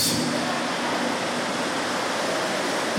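Heavy rain pours down at Shepherd House International in a dense, steady roar of hiss, unbroken and fairly loud throughout, with no voices.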